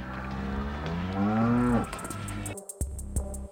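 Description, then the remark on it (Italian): A cow lets out one long, loud moo, its pitch rising before it breaks off. A few faint clicks and ticks follow in the quiet afterward. “Ho visto la vacca, era là per Dio, la stessa di ieri.”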